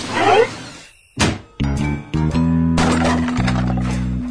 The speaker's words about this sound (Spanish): Dale, yo voy a abrir la ventana. Haceme piecito.